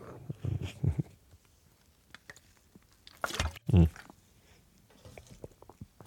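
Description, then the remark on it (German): A short laugh and a murmured hum, then a quick sip and gulp of water, followed by faint small mouth and handling noises. “Ich muss noch einmal ganz kurz einen Schluck Wasser trinken, damit ich nicht so viel Speichelfluss habe.”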